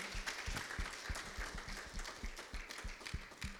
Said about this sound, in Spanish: Le pueden dar un aplauso al Señor. Let's go ahead and give an applause to God.